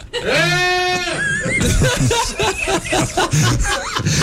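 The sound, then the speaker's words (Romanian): A person imitating a goat gives a loud, wavering goat-like bleat lasting about a second, then breaks into laughter and quick overlapping chatter. “te puneai în astane și cineva așeza o capră. Capră, …?”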